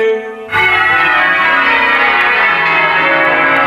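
Church bells ring out loudly together in a dense, sustained peal in public celebration of Queen Isabel II being declared of age, at the end of her oath ceremony; it starts abruptly after a brief quiet moment, overlapping tones blending into a festive clangour with no voices.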